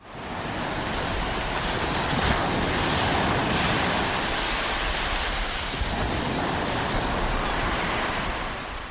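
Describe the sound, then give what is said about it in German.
Steady Atlantic Ocean surf roars continuously, waves washing and breaking in a broad, dense rush of noise with no voices, holding at a fairly loud, even level throughout. “Ja, schon nicht schlecht, aber dann möchte ich bitte das Atlantikrauschen haben und nicht so das Rauschen von irgendeiner so Mittelmeerpfütze.”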